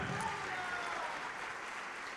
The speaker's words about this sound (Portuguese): Todos que ergueram as mãos, vem para cá e vamos aplaudir o Senhor Jesus por cada vida preciosa que está chegando. Vamos aplaudir mais, igreja, está chegando mais, olha que coisa linda.